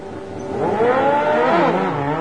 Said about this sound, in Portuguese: Caminhava por entre a relva e, num determinado lugar, avistou várias motos voadoras. Ele aproximou-se, pegou uma delas e saiu voando.